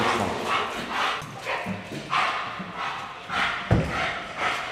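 A police dog barks repeatedly in a steady rhythm, about six sharp barks mixed with higher yips, moderately loud, with a dull thump partway through and no talking.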